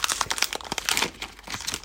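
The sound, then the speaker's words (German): Crinkling of chocolate cookie packaging: a dense run of crisp, irregular rustles and crackles, bright and hissy, continuing steadily for about two seconds with no voices. “Ähm, ich habe hier Schokokekse. Die esse ich jetzt.”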